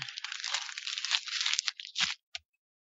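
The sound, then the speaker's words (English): A single sheet of paper for SmackDown is crumpled up loudly for about two seconds of crinkling, then thrown away with a brief soft thump. No voices are heard. “That was, that was SmackDown being crumpled up and thrown away.”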